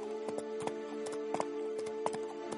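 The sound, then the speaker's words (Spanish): Horse hooves clip-clopping at a steady walking pace as riders travel on horseback, a series of sharp, distinct knocks repeating over a continuous low hum, moderately loud, with no voices. “Van montados a caballo, van Sally, Colson, Lorcan, montados junto a Taza.”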